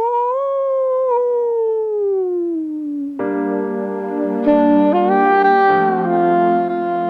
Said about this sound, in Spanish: Hombre lobo. ¡Aú!